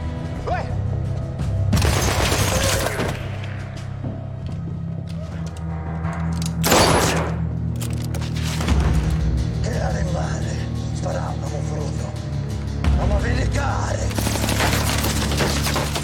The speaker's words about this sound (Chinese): 卢卡听到动静赶了过来，一顿扫射将男主逼到墙角，两边对射起来。